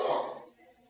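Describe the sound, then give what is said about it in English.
A single short sneeze: a sudden breathy burst that fades within half a second, leaving a faint quiet tail with no talking. “Bless you.”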